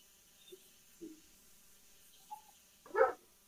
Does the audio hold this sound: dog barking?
yes